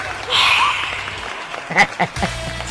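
A brief crowd ovation sound effect: cheering and clapping swell up and fade within about a second, followed by a few short, breathy vocal sounds.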